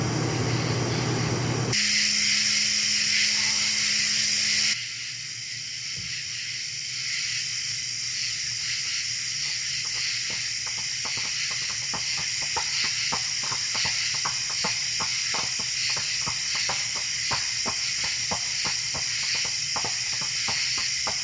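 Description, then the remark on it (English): Sharp knocking clacks, like two rocks struck together, repeat in an uneven rhythm over a steady hissing background, sounding somewhat muffled. “Sounds like two rocks clacking together.”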